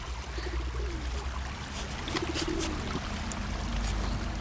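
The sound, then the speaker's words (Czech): A steady low outdoor rumble fills a nature scene with a small stream, trees and fallen leaves, while a few short, faint bird chirps flicker, with a soft low cooing call drifting underneath. “A to je vodní prvek, eh, tady je takový pramínek, um, pak tady jsou stromy, uh, listí napadaný a ptáci možná.”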